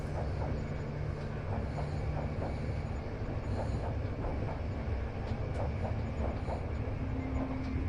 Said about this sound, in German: der sanfte Klang des Zuges und die vertrauten Gerüche der Dampflok begleiten dich auf deinem Weg, während du dich in den Komfort deines Abteils zurückziehst